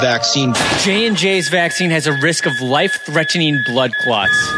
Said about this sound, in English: When you hear the beep, that's the sound of safety.